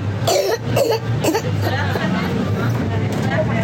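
A child coughs in a quick series of harsh, raspy bursts, then breathes heavily and laboriously with a strained, wheezy rasp over a steady low hum.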